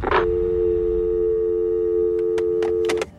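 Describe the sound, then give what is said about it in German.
A click of a telephone handset being hung up, followed by a steady, continuous telephone busy tone holding for about three seconds, with a few faint clicks near the end before it cuts off. “Und damit legt Isawa auf.”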